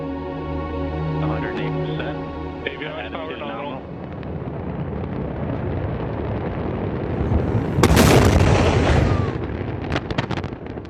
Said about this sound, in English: An unmanned rocket carrying 5,000 pounds of supplies and experiments to the International Space Station becomes a ferocious fireball just seconds after liftoff from NASA's Wallops Island facility on Virginia's eastern shore.